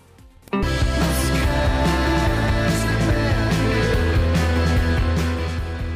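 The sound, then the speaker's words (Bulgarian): A rock song on Radio Sofia kicks in abruptly after a brief quiet moment, with a steady driving beat, thick bass and guitar chords playing at full, constant loudness and no talking. “Оставяме това парче да отзвучи.”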